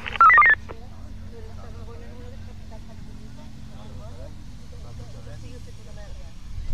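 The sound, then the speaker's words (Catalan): A loud burst of two-way radio beeps opens, followed by muffled, compressed voice chatter heard over Red Cross radio sets during a live emergency drill at Núria, against a steady low rumble. “És el so de, del simulacre Núria en directe, estem sentint-lo de, des del la, des dels aparells de, eh, de, de Creu Roja, ho sentiu perfectament, no?”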